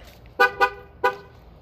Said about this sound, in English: Uh, you're going to hear my car beep, sorry.